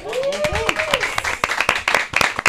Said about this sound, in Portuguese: A galera aí pode aplaudir, né?